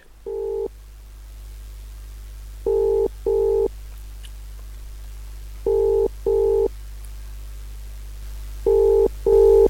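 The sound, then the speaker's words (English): A phone call to a man rings out unanswered: a short tone, then three double-pulse rings spaced about three seconds apart, steady mid-pitched tones over a low constant hum, with no voices. “We're going to give Andrew another go on the fo- on on the phone.”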